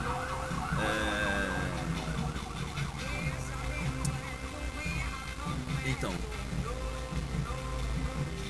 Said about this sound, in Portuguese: É, é quebrada, tá testando a moto ou tá fugindo? Não, isso é ambulância, fica tranquilo.